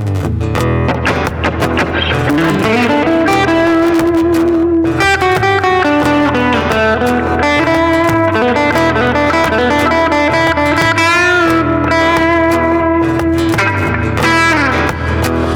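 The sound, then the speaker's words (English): An electric guitar on its Fender Electric Dirty voicing, with no extra effects added, plays with a gritty, overdriven tone. Sustained notes and chords ring loudly for the whole stretch, with no voices. “Fender Electric Dirty on this one.”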